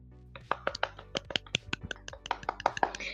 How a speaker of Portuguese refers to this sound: Mas, lembrando de Batgirl, outra personagem das Aves de Rapina também já foi Batgirl, que é a Caçadora. Palmas para ela.